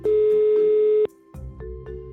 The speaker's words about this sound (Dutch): De tweede toon die voorkomt, dat heet de vrijtoon. En dan, eh, dat is als je het nummer gedraaid hebt of getoetst. Hè, we leven in 2023. Dan hoor je een onderbroken piep. Want de telefoon gaat over, zeggen we dan.